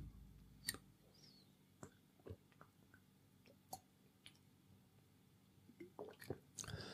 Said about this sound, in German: Übrigens, bevor wir starten, werde ich jetzt noch einen Schluck Wasser nehmen.